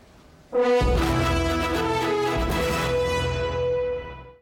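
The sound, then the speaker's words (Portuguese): A berrante cattle horn blows one long, loud, sustained note lasting several seconds, rich and buzzy with strong harmonics, fading out at the end with no talking over it, as presidential candidate Jair Bolsonaro is received in Juiz de Fora, Minas Gerais, on the first day of the 2022 election campaign. “O candidato à reeleição, Jair Bolsonaro, do PL, foi recebido em Juiz de Fora, Minas Gerais, ao som de um berrante.”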